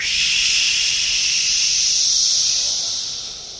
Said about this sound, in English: what's so interesting about the cicada sounds is when you just hear it for the first time, you just hear white noise.